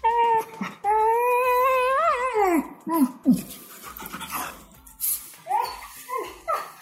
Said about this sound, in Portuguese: Por conta da temática de hoje, eu tenho aqui comigo um cachorro tremendo de medo.